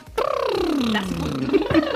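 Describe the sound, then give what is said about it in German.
A single voice hums a vocal warm-up, one sustained tone sliding smoothly downward in pitch and then curling back up, fairly loud, with no other sounds around it. “Kein Mensch singt sich ein. Kein Mensch. Aber ich mache immer so hm”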